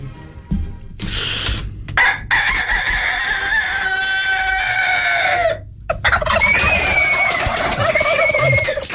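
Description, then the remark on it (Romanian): A person imitates a rooster crowing: two long, loud, strained cock-a-doodle-doo calls, one after the other with a brief gap between them and no talking. “Am lucrat șase ani de zile la cocoșul ăsta.”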